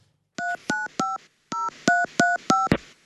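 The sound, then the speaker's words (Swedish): Seven crisp touch-tone beeps of a phone number being dialed to call Luleå municipality, three quick presses, a short pause, then four more, ending with a click. Clear, with no voices. “Jag har ringt till Luleå kommun.”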